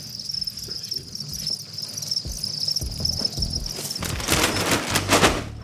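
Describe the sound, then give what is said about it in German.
A dense chorus of crickets chirps in a steady, high-pitched drone, joined toward the end by loud, rapid rustling and clicking as a swarming nursery of many small young crickets scrambles about. “Hier sieht man jetzt beispielsweise ein wildes Gewusel eines Grillenkindergartens, ganz, ganz viele kleine Grillen, die dann irgendwann nach 45 Tagen anfangen, Eier zu legen.”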